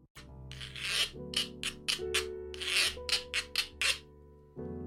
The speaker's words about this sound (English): that was the Puerto Rican Guiro pause, you would have heard an advert for something right there.